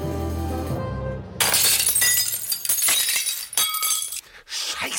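A window pane is smashed with a sudden loud crash to reach the window handle, followed by a scatter of tinkling shards falling and clinking for several seconds, after a low hum cuts off.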